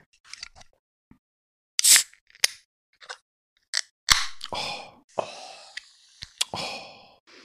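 Scattered clicks and metallic taps, then a can of forest-berry drink snaps open with a sharp crack and a short fizzing hiss, followed by more fizz and light handling noises. No one speaks.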